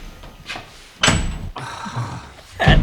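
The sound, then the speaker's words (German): A basement door with no lock slams shut with a heavy thud, followed by a brief rattle and a second hard knock near the end; no one speaks. “Die Tür hat kein Schloss, hier kommen wir nicht raus.”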